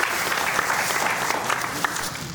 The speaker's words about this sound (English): Yeah, clap for yourself.